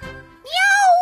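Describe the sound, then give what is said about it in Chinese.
A single drawn-out, high-pitched meow from Wilbur the cat, rising and then easing slightly downward, loud and clear. It follows a brief, softer lower sound. “他大声叫道：“喵喵！”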